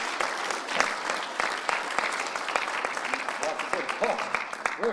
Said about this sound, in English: But let's give a great applause.